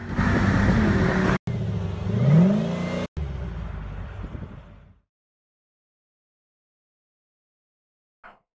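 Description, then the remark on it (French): A car engine revs hard through its exhaust, pitch climbing in a rising whine with brief cut-outs between pulls, then the sound abruptly stops, leaving silence and a faint click near the end. “Euh, dépôt d'échappement. On entend.”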